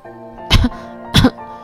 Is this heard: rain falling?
no